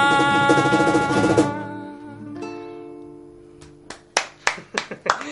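As the final chord of a live song rings out and fades, one person claps alone, about six sharp claps at a slightly uneven pace.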